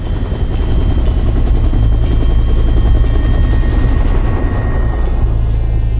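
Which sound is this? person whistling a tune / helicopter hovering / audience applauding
helicopter hovering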